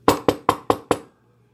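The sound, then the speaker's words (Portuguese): Five quick, evenly spaced knocks, imitated by a performer as a neighbor knocking on a door, ring out fairly loud with a steady rhythm, then stop into silence. No one speaks. “E aí eu só ouço assim na porta.”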